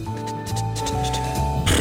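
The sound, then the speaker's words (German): A voice imitates a horse galloping with a quick, rhythmic run of clicking, snorting bursts over a low hum. It is fairly loud and ends in a louder breathy rush. “Traben ist ja so ja, ja, genau das Rennen, so Galoppieren ist dieses.”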